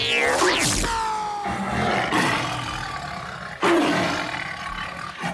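A large tiger roars loudly, a long rumbling growl at the start followed by two more powerful roaring bursts, with no voices present.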